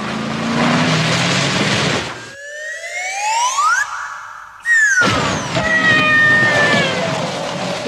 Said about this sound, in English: And then you watch it in the movie and they put a slide whistle sound effect.